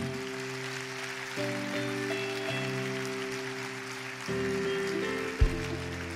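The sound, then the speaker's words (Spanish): An audience gives applause to the king in a steady, dense patter of clapping while sustained keyboard chords shift underneath, with one brief thump near the end. “Si tú lo crees, dale un aplauso al rey.”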